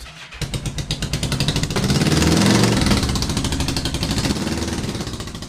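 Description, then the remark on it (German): The engine of a modified Honda CB 500 motorcycle, one kept for motor-paced stayer races, starts up and runs, its rapid, rattling exhaust pulses swelling in loudness before settling into a steady, throbbing idle. No one speaks. “Damit die Steherrennen durchgeführt werden können, verfügt der Verein auch über drei Garagen voll mit entsprechend umgebauten Hondas CB 500.”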